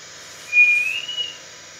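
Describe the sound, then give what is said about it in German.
A male mouse's ultrasonic song, recorded with a highly sensitive microphone while facing another male in a neighbouring cage, slowed twentyfold, heard as a single thin, fluting whistle that holds steady and then glides slightly upward for under a second over faint background hiss. “Aber erst wenn sie diese ums 20-fache verlangsamt, hört man flötende Töne.”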